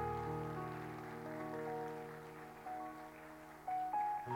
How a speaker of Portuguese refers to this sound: Pode aplaudir o Senhor em nome de Jesus?